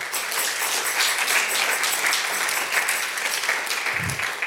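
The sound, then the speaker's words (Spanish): A worship audience claps steadily and loudly throughout as applause for the Lord, a dense, continuous wash of applause with no voices standing out. “Dale un aplauso al Señor.”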